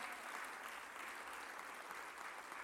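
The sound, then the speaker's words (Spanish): An audience applauds for the Lord steadily, a dense wash of many hands clapping at once with no pauses, sustained for a few seconds at moderate loudness and no voices on top. “¿Cuánto le damos un aplauso al Señor?”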